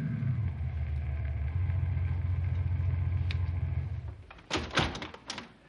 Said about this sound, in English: I'll turn the emergency lights off, pal. I want to make this as quiet as possible. Cut the speed of your car and coast up to the house. We'll get out quietly and walk in.